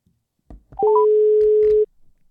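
Telephone tones: a couple of soft clicks, then a quick rising trio of beeps followed by one steady electronic tone held for about a second. Fairly loud and close, with no talking.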